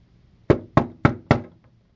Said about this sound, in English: If you listened to the recording and you heard some knocking, it was too loud. I apologize. That was me knocking on the table just now.